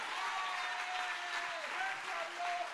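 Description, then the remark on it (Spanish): Steady, dense applause from an audience fills the whole stretch, a continuous wash of clapping with no breaks. A few sustained tones run faintly underneath the clapping. “Si usted entiende eso, dele un aplauso fuerte a Dios.”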